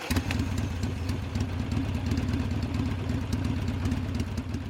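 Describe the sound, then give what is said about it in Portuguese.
A voice imitates an engine with the mouth, as for someone speeding down a steep street in a wheelchair at over 100 km per hour: a steady, low rumbling drone with a sputtering texture, holding at an even loudness for several seconds with no talking. “Desceu de braços abertos, sentindo aquele vento na cara, e fazia com a boca aquele barulho de motor.”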